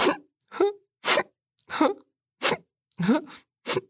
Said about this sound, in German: Oh, jetzt werdet ihr aber langsam traurig und fangt an zu schniefen.